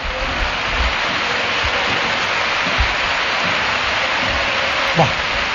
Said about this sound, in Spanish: La tribunona que se pone en pie. Ojo a lo que estoy diciendo, la tribunona despidiendo al jugador gaditano. Escuchamos la ovación del Molinón a David Barral que se santigua y saluda a la afición.